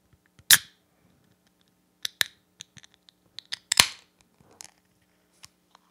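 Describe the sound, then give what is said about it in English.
A 12-ounce beer can from Avery Brewing of Boulder, Colorado, is eased open slowly: a sharp metallic click, then scattered small clicks and creaks of the tab, a louder pop with a brief fizzy hiss, and a few final ticks, no talking. “So let's let's let's open it. For ASMR purposes, I'm going to open it slow.”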